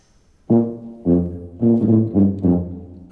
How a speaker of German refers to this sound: richtig, die Tuba. Jazz, meine Damen und Herren, die Anfänge der Popularmusik.